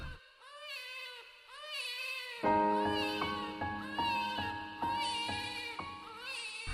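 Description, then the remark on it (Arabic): A newborn baby girl gives her first cries just after birth, thin, high wails in about three short rising-and-falling bursts, then soft sustained music swells in beneath the crying and continues to the end. “الحمد لله ولدت طفلتي وسمعت أول صوت صرخة لها”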